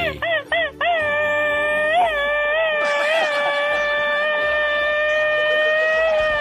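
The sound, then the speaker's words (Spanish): A Mexican grito ametralladora (machine-gun grito) shouted alone by a man from León, Guanajuato, Mexico: a few rapid, staccato yelps fired off like a machine gun, then one long, loud, wavering high-pitched cry held for several seconds. “Ahí está tu grito ametralladora”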